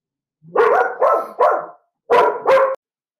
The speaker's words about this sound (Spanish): Tercera vez que trato de grabar esto, porque parece que anda un gato por aquí y entonces mis perros se vuelven locos.